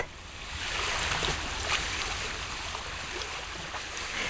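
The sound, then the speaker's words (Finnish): Drifting spring ice tinkles and chimes softly on open sea water among slush ice and small snow-covered floes, during the ice break-up in southern Finland, a steady wash of bright, glassy clinks over lapping water, continuous, with no voices. “Kevätjäiden helinä kuuluu veden allekin ja on eräs ääni, joka kertoo, että nyt se on kevät.”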